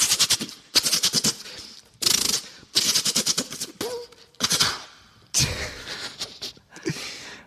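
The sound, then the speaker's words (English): A voice imitates machine gun fire: six or so loud bursts of rapid rat-a-tat pulses, separated by brief pauses, with no other talking. “Let's do machine guns.”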